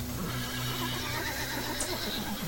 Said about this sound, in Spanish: Al estar tomando agua, el caballo empezó a relinchar muy nervioso, avisándoles de algo.